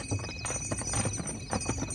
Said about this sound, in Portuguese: É uma charrete com feno.